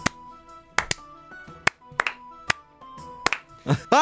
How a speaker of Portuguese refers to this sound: Não, não, palmas lentas e sarcásticas, vamos lá.